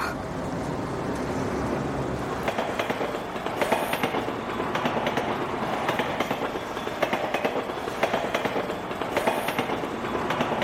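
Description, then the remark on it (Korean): A subway train rattles past at a subway station that seems suspended in the air, its steady rumbling roar broken by a run of rhythmic metallic clacks from the wheels, with no voices. “단속적인 기계음이 들리고 허공에 매달려 있는 것 같은 지하철 정거장이 보였다.”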